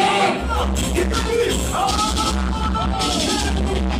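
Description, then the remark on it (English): A loud, dense crowd yells and whoops continuously over a heavy, thumping bass line, voices overlapping in a chaotic roar, at a dancehall sound clash. “Look how much yelling I a blood clot dance.”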